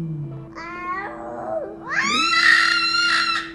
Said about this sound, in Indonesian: Ini jadi monyet sebenarnya suaranya ya.